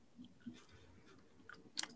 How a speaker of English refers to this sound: chewing gum angrily.